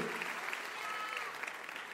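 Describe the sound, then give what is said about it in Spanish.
An audience applauds steadily, a dense wash of many hands clapping at an even, moderately loud level throughout, with a few sharper individual claps standing out. “Le da un aplauso, al señor de alabanza, se le acabó el avivamiento.”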